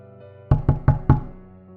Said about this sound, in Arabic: الباب خبط كلنا اتجمدنا